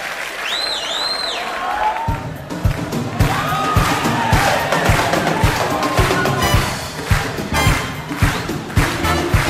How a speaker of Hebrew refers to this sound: איפה מחיאות הכפיים